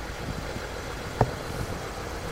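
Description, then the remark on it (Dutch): A car engine idles with a steady, low rumble during a police traffic stop on a main road, holding level throughout, broken once by a brief sharp click near the middle. No one speaks. “Je moet de motor even afzetten.”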